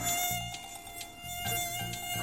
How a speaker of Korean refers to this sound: 모기! 아. 너 갑자기 어디서 나타난 거야? 어디 있었니?